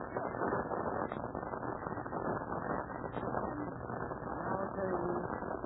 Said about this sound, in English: it's like the orphanage has company. That's an official army car, isn't it?